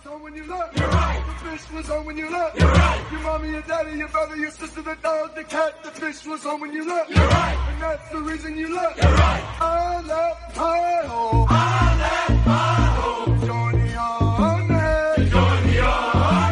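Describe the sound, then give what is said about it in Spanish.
A loud sung army cadence, a sergeant chanting melodic lines, partly with autotune, over a steady thumping rhythm of soldiers running, pausing briefly midway before picking up with denser backing. “Vamos a ponerlo un sargento cantando, eh, con otros corriendo en el ejército.”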